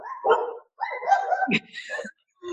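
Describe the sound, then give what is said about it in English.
Dogs bark in several short bursts, loud, with a brief pause between the volleys and a final bark at the end. “sorry, dogs.”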